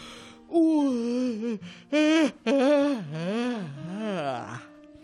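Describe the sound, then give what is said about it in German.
A loud, drawn-out voiced yawn, an uninhibited yawn with the mouth opened wide, with several swooping rises and falls in pitch, stretching over about four seconds before trailing off. It seems to be performed by a person as an exaggerated imitation. “Ich meine das sogenannte hemmungslose Gähnen.”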